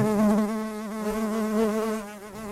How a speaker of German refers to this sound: eine Biene.